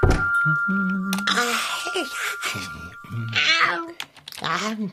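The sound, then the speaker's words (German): A tomcat, the pirate cat Long John from Figarinos Fahrradladen, meows several times in a row, drawn-out, wavering cries that are fairly loud, with a faint steady tone humming underneath. “Figarinos Fahrradladen mit Figarino und seinem Piratenkater Long John.”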